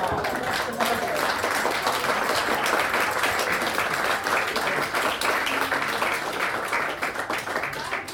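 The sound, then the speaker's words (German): Sustained applause from a crowd, a dense, steady wash of many hands clapping at an even loudness for several seconds, with a few voices faintly mixed in beneath it. “Ja, definitiv noch einen dicken Applaus, oder?”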